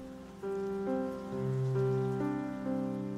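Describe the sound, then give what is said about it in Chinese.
Steady morning rain in Yilan falling as a continuous, even hiss, with sustained musical tones over it that shift pitch every second or so. No one speaks. “雨声划破了早晨，这天，宜兰用了最宜兰的方式迎接了游学的到来。”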